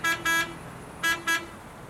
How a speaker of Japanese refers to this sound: おおいつくつく気をつけろあつくつくっていうのは三輪自動車で日本でいうところのタクシーです